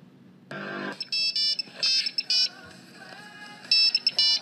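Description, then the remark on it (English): A Nokia phone ringtone plays as a quick, bright electronic melody of short repeated beeping notes, fairly loud, with no talking over it. “We're back to Nokia phones.”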